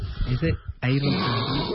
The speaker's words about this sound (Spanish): Ahí intenta respirar y vendrá un ronquido intenso para romper toda la apnea. Sigue sin respirar. ¿Es una apnea larga?